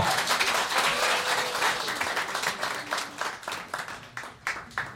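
A live concert audience applauds, a dense wash of many hands clapping that stays steady, then thins into scattered, individual claps toward the end.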